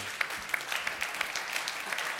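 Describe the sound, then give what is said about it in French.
A crowd applauds steadily, dense clapping forming a continuous crackling wash with small sharp peaks, at a moderate level and with no voices over it. “Euh, merci, on peut les applaudir.”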